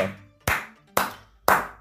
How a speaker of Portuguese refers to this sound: palmas sônicas para essa pessoa, quem quer que ela seja, né?